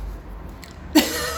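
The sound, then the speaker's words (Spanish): A single sudden sneeze bursts out near the end after a quiet stretch, sharp and breathy with a hissy tail, loud against the low background. “Salud.”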